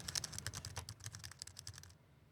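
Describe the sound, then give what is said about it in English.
Rapid typing on a wired Cherry Stream desktop keyboard with scissor switches: a quick, steady patter of soft key clicks that goes on for about two seconds before falling silent. No one speaks. “This uses scissor switches, so there is a”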